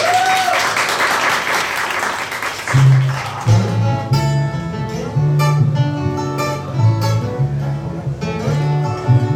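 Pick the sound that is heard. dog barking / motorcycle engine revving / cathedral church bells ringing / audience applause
audience applause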